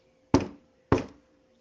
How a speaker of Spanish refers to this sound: Despacio y con mucho cuidado me acerqué a la puerta, temeroso de que algo pasara. Toqué dos veces, deseando que nadie me abriera.